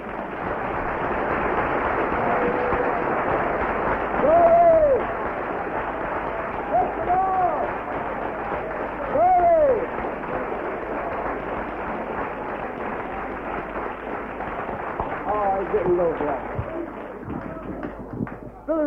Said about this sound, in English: Let us all give Jesus a clap. Come on.